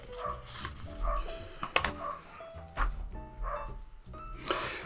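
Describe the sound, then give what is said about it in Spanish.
Several dogs, the speaker's own, bark frantically, their sharp, overlapping barks repeating almost without pause across the whole stretch. “Mm, bueno, ahí están mis perros ladrando como locos.”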